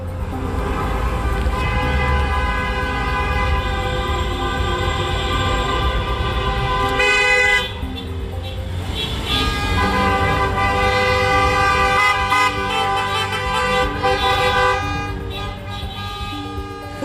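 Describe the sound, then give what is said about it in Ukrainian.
A dense, unbroken chorus of car horns blares at many different pitches in a city centre as passing drivers honk in support of a protest, overlapping loudly and steadily throughout, with a brief shift in the mix partway through but no pause. “Центр міста на годину, доки тривала акція, перетворився на безперервний сигнал автомобілів різної тональності та мелодіки.”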